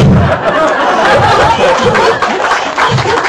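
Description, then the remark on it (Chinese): An audience applauds steadily, dense loud clapping filling the whole three seconds without a break, with a few faint voices or bits of laughter mixed into the crowd noise. “你看这个掌声就知道，大家可能对 MBA 班是还是非常期待的，是不是？”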